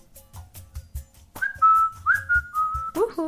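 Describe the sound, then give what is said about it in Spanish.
A person whistles a short, bright melodic jingle of several sustained notes, imitating a brand's sound logo, after a soft rhythmic tapping, ending with a quick upward flourish, clear. “Hay un sonido de Sonic Brand, o sea, de alguna marca que tiene como un sonido que es así como Uhu.”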